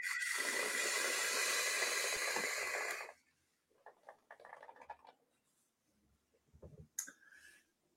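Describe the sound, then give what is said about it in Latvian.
A loud, airy hiss of someone drawing hard on an e-cigarette vape set to 110 watts for about three seconds, producing a big vapour cloud, followed by quieter crackling and rustling and one brief hissy burst near the end. “tvaikmākons jau nu baigais. Gaiss, nu ritīgi, ritīgi daudz gaisa nāk iekšā.”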